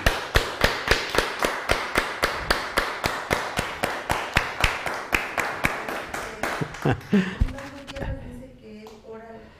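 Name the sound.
audience applauding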